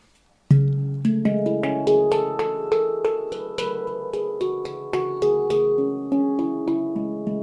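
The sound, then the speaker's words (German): A handpan is played in a steady flow of struck notes, each ringing with a warm, sustained metallic tone that overlaps the next, fairly loud, with no voices, recorded through a headset microphone on a longer cable. “Ich könnte also theoretisch mit meinem Kopf, mit meinem ähm, Headset Handpan spielen.”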